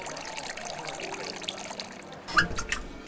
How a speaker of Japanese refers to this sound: 水曜の夕暮れ時にオープンする水道水だけを提供する水飲みバーマスターが手慣れた手つきでグラスに水道水を注ぎ